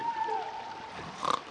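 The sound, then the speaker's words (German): A single snore from a man asleep in his bed early in the morning, audible even from outside: a thin whistling tone slides downward, then a short rattling snort closes it off. It is fairly soft, with nothing else happening around it. “und schnarcht. Man kann es sogar hier draußen hören.”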